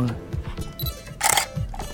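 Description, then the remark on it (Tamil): A camera shutter fires at a slow shutter speed of about 1/30 second: a sharp mechanical click, then a brief pause before a louder closing snap, over a faint voice murmuring in the background. “இப்போ நம்ம shutter click பண்ணும்போது இப்படி அடிச்சிச்சுன்னா நான் இப்போ வந்து ஒரு செகண்டுக்கு முப்பது சதவீதமாக பிரித்து வச்சுருக்கேன் ஷட்டர் ஸ்பீடு அப்போ வந்து ஒரு சவுண்டு கேட்கும்”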